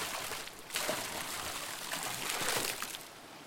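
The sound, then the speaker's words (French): Water splashing continuously as a family of beavers slap their tails on the water of a small river branch, with a couple of sharper slaps and bursts standing out, fairly soft and steady throughout, with no voices. “se font largement arroser par toute la famille Castor, toute que plate tapant dans l'eau, éclaboussant les enfants, riant aux étoiles.”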